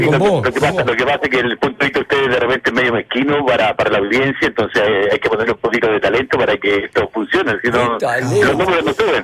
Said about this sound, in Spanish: no te acerques tanto la boca al, al, teléfono porque te escucho muy saturado.